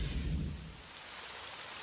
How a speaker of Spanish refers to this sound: tarde de lluvia.